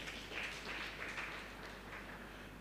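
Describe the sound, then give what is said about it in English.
A church audience claps for Jesus together in a steady, dense burst of applause that holds at an even level throughout, with no voices standing out. “Clap your two hands for Jesus.”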